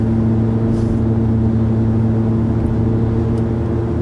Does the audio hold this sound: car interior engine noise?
yes